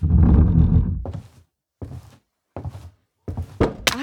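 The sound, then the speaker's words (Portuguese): A small music box hits the floor with a heavy thunk as it is dropped and a part breaks off, followed by several short, sharper clatters and bumps spaced out over a few seconds as pieces knock about. “Droga, por que eu sou tão desastrado? Hum, parece que a caixinha quebrou uma parte, mas ela ainda toca.”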